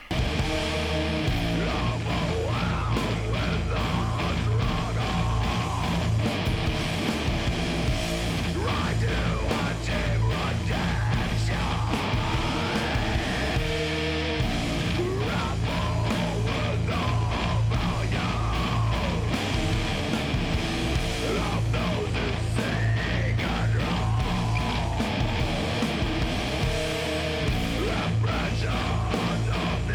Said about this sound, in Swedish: kommer komma ett annat fall här också eh, där det har en sång som faktiskt ligger över riffet och eh, trummorna och eh, förstärker det.